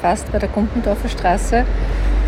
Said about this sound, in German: Man hört auch ein bisschen die Straße im Hintergrund. Der Autobus fährt da gerade vorbei, glaube ich.